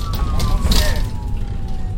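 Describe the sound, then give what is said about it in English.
An ambulance siren wails as a steady, slowly falling tone over a rumbling traffic background, moderately loud and continuous for the whole moment, with a faint murmur of voices. “Then, doctors put her in an ambulance 30 miles south to a hospital in Grove City, Ohio.”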